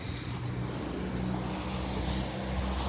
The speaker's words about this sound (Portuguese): Agora vem uma moto ali.